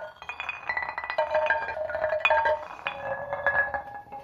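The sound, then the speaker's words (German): Large, heavy flint stones are knocked together again and again, each strike giving a bright, ringing clink with a short resonant tone, in a loose, uneven rhythm with no voices. “Das jetzt Bereden mit großen schweren Feuersteinen”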